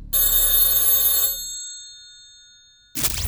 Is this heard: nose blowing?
no